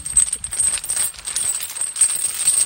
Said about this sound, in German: Es klötert. Genau. Ja, höre ich. 2,50 Meter Stahlkette. So Aha. vierkant äh, Stahl. Vierkant Stahl. Kettenglieder